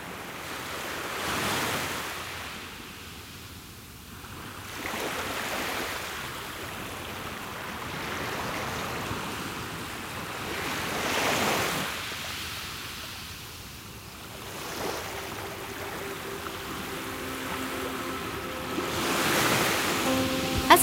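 Ocean waves roll onto Katano swimming beach in Kaga, Japan, in summer 2021, each breaking surge swelling into a broad hiss every several seconds before easing back, with a steady wash of surf and light wind between. No one speaks.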